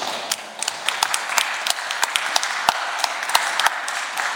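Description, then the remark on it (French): An audience applauds Jesus in the evening, steadily, a dense wash of many overlapping hand claps with sharper individual claps standing out now and then, sustained at an even loudness throughout with no talking. “Est-ce qu'on peut applaudir ce soir Jésus”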